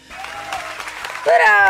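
An audience claps in a steady, dense patter that holds throughout, with a bright tonal sound swelling louder over the applause near the end.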